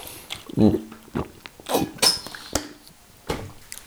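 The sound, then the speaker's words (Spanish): Someone drinks from a water bottle: a few soft gulps and handling knocks, then a brief plastic clink and a couple of dull thunks, with faint breaths between. “Y aprovecho la cuña para eh, yo también hidratarme un poco.”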